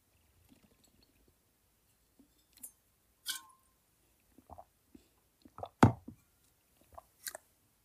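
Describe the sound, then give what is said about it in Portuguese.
Someone drinking water: a scattered series of soft, wet swallows and gulps with small mouth clicks, irregularly spaced, one louder gulp standing out, and no talking. “e agora vou parar para beber água.”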